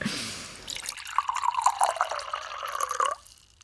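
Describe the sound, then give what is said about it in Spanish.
Water is poured steadily into a glass for about two seconds, a bubbling gurgle whose pitch climbs slightly as the glass fills, then stops abruptly. No one speaks. “¿tomamos un poquito de agua?”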